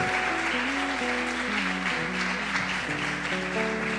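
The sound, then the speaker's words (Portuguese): An audience claps in steady, dense applause offered to God, holding at an even, loud level for the whole stretch, while sustained keyboard chords shift underneath. “Você pode dar uma salva de palmas a Deus?”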